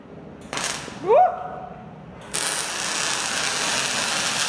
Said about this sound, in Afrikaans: Hier is die afsnymasjien wat ons die staal verskillende lengtes sny. Nee, kyk, my ore gaan nooit weer dieselfde wees nie.